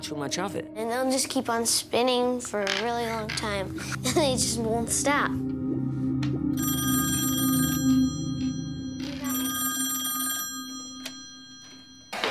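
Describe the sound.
After a few seconds of someone talking, a telephone bell in a home rings twice with a strange call, in long, bright, metallic trills, separated by a short pause, over a steady low hum.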